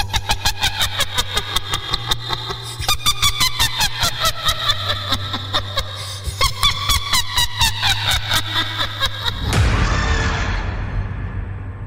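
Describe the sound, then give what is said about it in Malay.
A ghost's shrill, cackling laugh rings out in rapid, evenly spaced bursts whose pitch rises and falls for about nine seconds over a steady low hum, then gives way to a rushing noise, heard as a motorcycle is started and ridden off. “dia mengilai Fiz kuat gila Fiz masa tu.”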